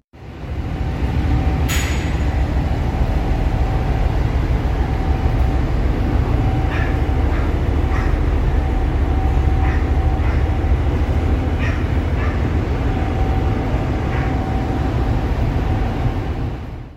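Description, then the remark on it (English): As the ferry departs Tobermory, its bow door lowers with a constant heavy mechanical rumble and a steady hum. An early sharp clank is followed by a scattering of fainter metallic knocks as it locks into place. “So now the parting Tobermory, and I'm just trying to record the uh, the bow coming down and locking back up.”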